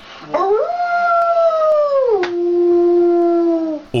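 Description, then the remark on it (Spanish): A girl's voice imitates a wolf howl: two long, sustained wavering tones, the first rising and holding high, then dropping to a lower held note before fading, loud. “Y luego sigue con los más difíciles, el búho, el águila, el lobo”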